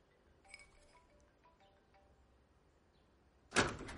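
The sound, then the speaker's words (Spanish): A few light glassy clinks ring out, followed after a quiet pause by a sudden loud clack as a microwave door pops open and a glass of milk is taken out, at home while breakfast is prepared. “Abre el microondas y saca un vaso de leche.”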